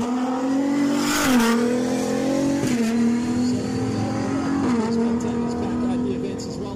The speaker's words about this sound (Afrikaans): ons hou duim vas vir al die Suid-Afrikaners in die Dakar wedren. Ons het geluister na die klanke van Hilux T1+ se V6 enjin